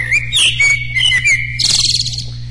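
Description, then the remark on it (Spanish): A small bird chirping sound effect is played: quick, bright chirps and trills ending in a rapid buzzy warble, with a steady low hum underneath and no one speaking. “Entonces le pongo el pajarito para que se despierte.”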